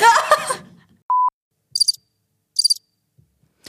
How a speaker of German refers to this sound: Ey, welcher Knopf war das? Hä? Der mit der Grille? Ey, geil.